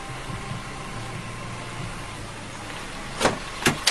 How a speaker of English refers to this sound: Oh, can you roll down your window? Your window. Your window.